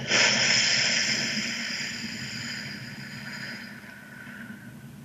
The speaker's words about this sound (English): Let's take a breath in through the nose, out through the mouth.